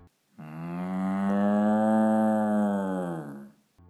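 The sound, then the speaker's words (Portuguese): A single long, loud bull's moo rings out on its own, holding a steady low, rich pitch for about three seconds before tapering and dropping slightly at the end. “O preguiçoso pegou a máscara mesmo assim e colocou ao contrário, e todo o seu corpo começou a se transformar em um touro. Ele gritou: Ai, o que é isso? Mas tudo que se ouvia era:”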